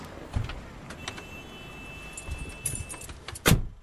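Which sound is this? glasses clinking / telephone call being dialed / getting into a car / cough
getting into a car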